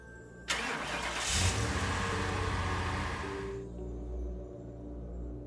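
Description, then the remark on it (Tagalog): A car named Jack, passing the church in Marikina, cranks and strains loudly for about three seconds, a harsh, rough grinding roar, then drops back to a low, uneven rumble without catching. No voices are heard. “Nang mapadaan ako sa simbahan ng Marikina, parang biglang bumigat yung gas. Ayaw lang umandar.”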